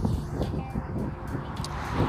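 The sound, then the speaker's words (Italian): A steady low rumble of passing car traffic, with a faint background hum and no clear voices. “Allora, oggi volevo parlarvi di una cosa che mi è capitata, sentirete anche sottofondo di macchine ovviamente, che passano.”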